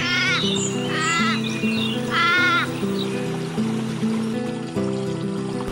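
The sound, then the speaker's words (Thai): A stream burbles and flows steadily in the background, with a few high bleating animal calls near the start and a soft, sustained musical bed underneath throughout. “เขาชอบอยู่แถวนี้ เพราะมีหญ้าอ่อนๆให้กิน และได้ฟังเสียงน้ำในลำธาร”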